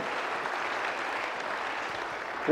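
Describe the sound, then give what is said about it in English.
Steady crowd applause for children as they go back to their seats fills the room, a dense wash of many hands clapping at an even level throughout, with a slight bump in volume at the very end. “Would you give these kids a round of applause as they go back to their seats?”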